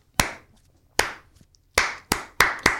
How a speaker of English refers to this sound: Um, and then the other famous Grimsby chant is it's so funny. It's basically um, it's everyone claps.